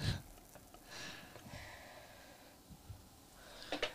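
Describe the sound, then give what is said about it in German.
Sparkling wine is poured into glasses with a soft, steady fizzing hiss and faint gurgles, quiet, with a few small clinks near the end and no talking. “Füllen wir da die Gläser mal? Ich kann schon mal verraten, es ist schaumig. Vielleicht hört man es.”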